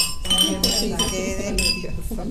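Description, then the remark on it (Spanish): Glasses of red wine clink together in a toast, several bright chimes in quick succession, each leaving a high ringing tone that lingers, with voices murmuring underneath. “Salud por esas palabras que yo creo que a todos nos conmovieron”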